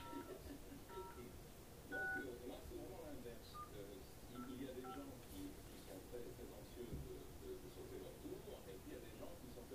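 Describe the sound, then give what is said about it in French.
A series of short telephone keypad tones beeps out in an uneven rhythm as a number is dialed to call a shop, with low background murmur and some speech underneath. “Non mais moi suis appelé le magasin.”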